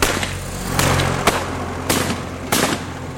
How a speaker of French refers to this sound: Ils s'apprêtent à monter à bord des deux avions dont les moteurs tournent déjà, quand cinq ou six hommes surgissent d'une remorque tirée par un tracteur et ouvrent le feu à bout portant.